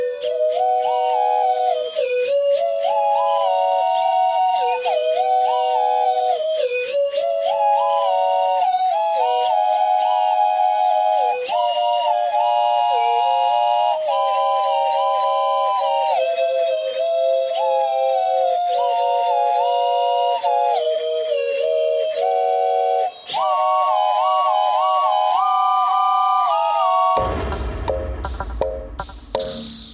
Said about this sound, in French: La coulisse du sifflet est actionnée à distance par une interface mécanique et électronique, tandis que l'embouchure est alimentée automatiquement par une pompe à air